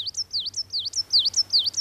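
A bird sings the same high, whistled phrase over and over, a swooping note that dips and rises, repeated about eight times in a quick, steady rhythm with a faint low hum beneath.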